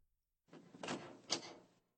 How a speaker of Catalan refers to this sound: De cop, va sentir la porta.